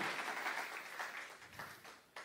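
A crowd applauds a man for his testimony, a dense wash of many hands clapping at once, steady and fairly loud, thinning slightly toward the end before a final burst.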